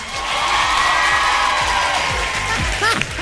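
A show audience cheers and whoops loudly in a steady, sustained roar to vote for a contestant, with a few sharp rising whoops and whistles breaking through near the end.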